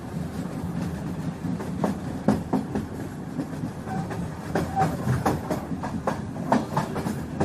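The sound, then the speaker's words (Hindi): A train speeding without stopping past stations and red lights rushes along the rails with a steady low rumble, punctuated by rapid, irregular clickety-clack hits from the wheels over track joints. No voices are heard. “train भी इतनी speed में थी कि कोई ट्रेन से कूदने के बारे में सोच भी नहीं सकता था सर रेड लाइट के बावजूद ट्रेन हमारे स्टेशन से निकल गई है”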